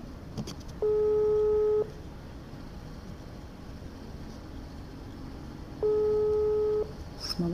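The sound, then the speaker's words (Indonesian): A telephone ringing tone of an outgoing call to a friend: two steady one-second beeps about five seconds apart, heard through a phone line over a constant low hiss, with no voices. “So, nggak butuh waktu lama, kita langsung telepon aja ya orangnya.”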